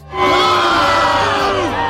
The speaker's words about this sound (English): And this is entered into a film festival and everyone's watching it and they think it's terrible. And when the film ends, they all start booing and then this happens.